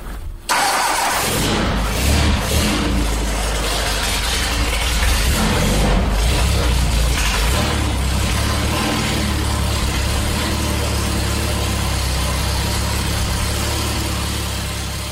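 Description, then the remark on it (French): The engine of a racing driver's first race car cranks and fires up abruptly, then roars with rough revving bursts before settling into a steady, throaty idle, loud, with no voices. “Ce que vous venez d'entendre, c'est le moteur de la première voiture de course de Gilles Villeneuve.”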